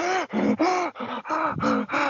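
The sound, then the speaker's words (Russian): A voice imitates a woman's rapid, heavy, nervous gasping breaths as she sits in a car's passenger seat having a nervous tic: about seven quick panting bursts in a steady rhythm, loud, with short pauses between them. “и у нее просто нервный тик начинается. Она там дышит такая прям...”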